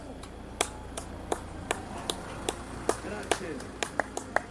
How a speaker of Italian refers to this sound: Un grande applauso!